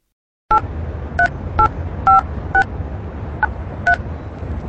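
A quick series of seven telephone keypad tones beeps out at an uneven pace over a low background rumble, each dual-pitched beep short and clear, with no one speaking.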